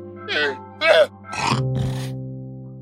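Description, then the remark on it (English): A llama's vocalization in the video game Minecraft, clear: four short, nasal grunting bleats in quick succession, followed by a lingering low rumbling tone as the last call fades. “Aside from the chickens, there are also pigs, horses, cows, llamas. See? Here's a llama.”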